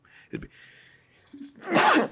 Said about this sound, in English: Excuse me the, oh, I'm, I'm, coughing. Like I mean, I'm just getting over like a really bad illness. the um, I'm uh, trying to like lean to the side and cough. But oh my god, it's hard.